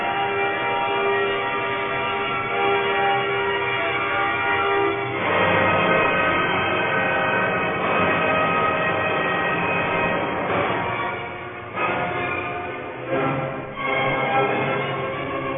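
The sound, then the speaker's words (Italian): Loud orchestral music evoking a thunderstorm, imitating thunder and lightning: sustained full-ensemble chords give way to churning, turbulent swells with crashing surges near the end, no voices present. “Questo imita chiaramente il tuono e il lampo.”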